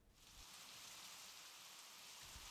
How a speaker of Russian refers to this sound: а то, как приятно засыпалось во время дождя.